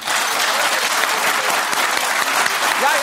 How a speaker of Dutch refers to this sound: Jij zegt eigenlijk nou even applaus voor het, van het publiek,